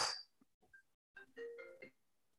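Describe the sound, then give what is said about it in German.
A short melodic mobile phone ringtone chimes faintly in the background, a quick run of bright electronic tones, preceded by a soft breathy puff and a few quiet clicks. “Nee, das Handy, was im Hintergrund geklingelt hat.”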